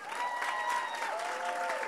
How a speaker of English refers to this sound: Clap it up for the panel. Amen. Can we thank God for the panelists